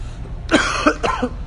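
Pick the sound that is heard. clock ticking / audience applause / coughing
coughing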